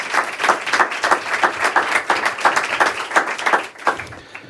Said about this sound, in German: Wenn Sie sich jetzt wundern, warum dieser Beifall so besonders herzlich ist, äh, liebe Hörerinnen zu Hause, dann liegt es daran, dass das Auktionshaus Griesebach äh, direkt benachbart ist vom Literaturhaus in der Fasanenstraße wo wir uns